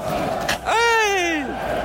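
Football fans outside a party venue chant in a loud, drawn-out sung note that slowly falls in pitch, rising from a steady background of crowd noise and fading after about a second.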